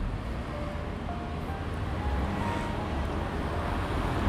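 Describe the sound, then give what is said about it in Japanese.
A steady, continuous roar of traffic from a busy road, with cars rushing by and blending into one broad wash of noise, fairly loud and without any voices. “さて車がバンバン通っているところですね”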